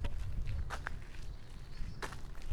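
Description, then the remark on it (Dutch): Footsteps walking along a path toward a settlement of huts, a steady series of crunchy steps over a low rumbling background, with no voices. “We wandelen nou die kant op.”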